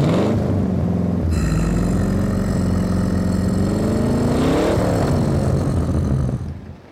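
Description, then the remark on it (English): A car engine idles, then revs hard, its pitch climbing steadily for several seconds before dropping back and trailing off. Loud, continuous, with no voices. “We all turned to see it right back where we left it, revving its engine.”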